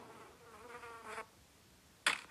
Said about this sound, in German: Und ähm, er, dann kommt so eine Fliege, landet auf Bull, nachher schlägt Spike so ihn, nachher.